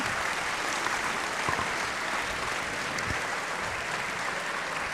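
A crowd applauds steadily after a speech, a dense, even wash of many hands clapping together at moderate loudness for several seconds, with no voices rising above it.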